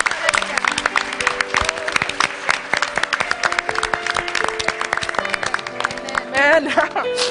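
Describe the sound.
A church audience in Bangkok applauds to give honour to God in dense, steady clapping that runs throughout, with a loud, busy texture of many hands. Sustained tones and voices sound faintly beneath, and a voice rises near the end.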